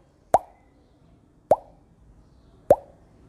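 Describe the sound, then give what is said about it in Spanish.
Three water drops fall one by one at a slow, even pace from a slightly open tap into an empty glass, each a bright, liquid plop that fades quickly, with only faint background noise between them and no talking. “Y lo dejas, dejas que sigan las gotitas de agua cayendo.”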